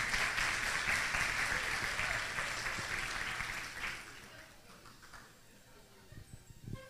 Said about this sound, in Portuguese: Uma salva de palmas aí para esse casal corajoso.